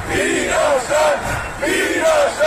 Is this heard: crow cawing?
no